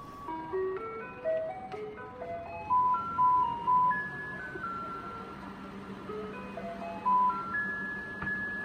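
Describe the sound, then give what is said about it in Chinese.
A garbage truck on a Taipei street plays a chiming ice-cream-van style melody, a bright electronic tune of stepped notes repeating over a low engine rumble, with no one speaking, as residents bring household garbage to the roadside for collection. “卖冰激凌音乐的这样的声音的一辆车会开到你周围，然后所有的人都会提着自己家里中的垃圾到街道旁边等着他来回收。”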